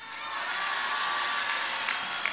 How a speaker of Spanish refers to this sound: Por eso también, un aplauso para nuestros paisanos migrantes